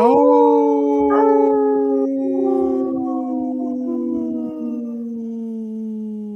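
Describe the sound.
A person imitates a wolf, giving one long, loud, sustained howl that rises briefly and then slowly slides downward in pitch, held alone for about six seconds.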